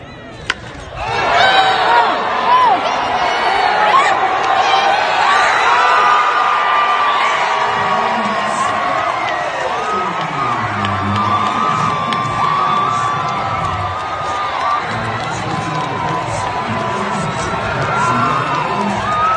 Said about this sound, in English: so right now, what we're going to play is just the audio of the hit and the crowd. So you're going to hear a crack, and then the crowd go crazy, and we're going to let that play out.